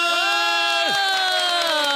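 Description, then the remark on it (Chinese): An audience cheers and whoops in sustained, high-pitched voices, with one voice sliding sharply downward partway through, over a faint wash of clapping for about two seconds, at a live recording at a venue on Datong Road, South District, Tainan City. “各位听众，欢迎收听《给幕后一道 Spotlight 之反正纯聊天》，掌声！”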